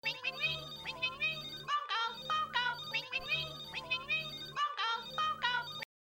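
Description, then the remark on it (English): A synthetic computer-phone ringtone plays alone, a short warbling electronic melody looping about four times in a steady, insistent rhythm at a fairly loud level before cutting off abruptly. “the weird computer phone thing that they have begins to ring the most annoying ringtone of all time um, and so let's get a little bit of, of sound to hear what that sounds like here.”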